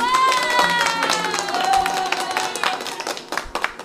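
A burst of steady applause from a small group welcoming a guest on Café Positivo, dense overlapping claps alongside a sustained tonal sound like cheering or music, thinning into scattered claps near the end.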